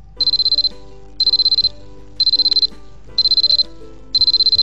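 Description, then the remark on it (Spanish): Five alarm clocks ring in five short bursts of rapid electronic beeping, evenly spaced about a second apart, loud with no voices, illustrating the number five. “Cinco relojes.”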